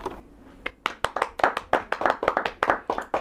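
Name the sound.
hand clapping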